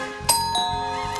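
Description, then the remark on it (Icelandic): A quiz bell, rung by a team to win the right to answer in a film quiz, rings out with a sharp, bright ding, followed by a couple of softer strikes, its high metallic tones lingering over a steady background hum, with no one talking. “það lið sem að ringi bjöllunum sína undan fær svarréttin”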